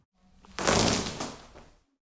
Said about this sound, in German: Es ist diese Folie, die man so, so, so, so zerplatzen also lassen kann. Wird gerissen. Wird da wird eine Folie da wird gerissen. Oder? Gafferband. Ja. Gafferband. Ja, ja, Gaffer. ja richtig.